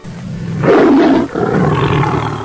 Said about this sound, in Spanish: El león.